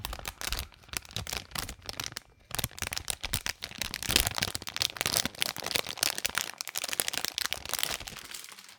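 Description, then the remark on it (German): Crinkling of a plastic bag for ASMR, a dense stream of sharp crackles and rustles that swell and fade for several seconds before trailing off, with no talking. “Und ich war auch kurz davor, äh, einmal so ein ASNR, also ich habe mir schon sowas an der Nähe bereitet, also so eine Tüte. Das wäre ja dann so, wenn man.”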